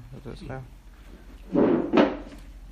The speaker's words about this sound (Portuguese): Você pode encostar a porta?